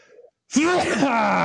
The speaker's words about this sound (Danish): Ja, så, øh, så øh, hvad det? er også en sjov karakter, der bare nyser random midt i en podcast.